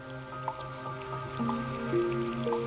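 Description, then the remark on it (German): Water trickling and gurgling quietly close by, with small drips and soft bubbling over a steady low murmur: a river flowing through the darkness of a dark, humid glowworm cave in New Zealand. “Du hörst einen Fluss, der direkt neben euch leise durch die Dunkelheit fließt.”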